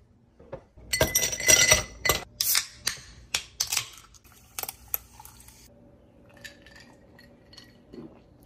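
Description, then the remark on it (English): Ice cubes clatter and clink as they are put into a glass to cool a drink, in a quick, bright burst of sharp taps, followed by a faint, quiet sip from the cold drink. No one speaks. “So I am going to put some ice in a glass cool it off that way.”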